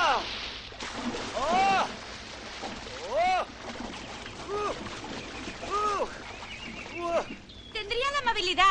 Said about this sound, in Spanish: Desde un kiosco de su jardín, Aurora oye los gritos de su vecino astronauta tirándose a la piscina. ¡Oh!